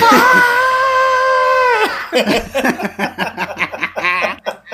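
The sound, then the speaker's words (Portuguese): A voice lets out a loud, sustained cartoon-style scream for about two seconds, imitating the scream from Tom and Jerry, then breaks into laughter and quick, excited chatter. “Inclusive, o grito do Tom e Jerry foi mais ou menos esse o grito do cara também.”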